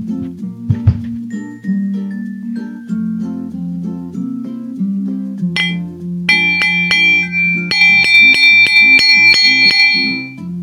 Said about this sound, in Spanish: Son cuencos tibetanos, para los amigos que nos escuchan en Spotify, son cuencos tibetanos. Ahí los tengo, aquí los tengo, pues están a la mano porque sí los llego a ocupar. Sí los uso poco, pero sí los uso.